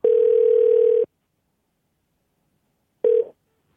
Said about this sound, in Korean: 아, 전화 한번 걸어보죠. 9915님 한번 전화 한번 걸어보겠습니다. 이게 되나?